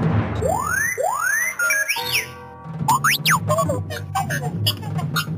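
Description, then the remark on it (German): A string of electronic whistles and beeps from a sci-fi robot: rising swoops, rapid warbling trills and quick chirps, loud, with a low hum beneath and no talking. “20 Prozent der Deutschen denken beim Stichwort KI an den ulkigen Pfeifroboter R2D2 aus Star Wars.”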